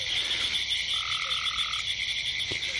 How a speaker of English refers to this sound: You can hear um, the leopard frog, the the kind of the rough rash kind of chuckling.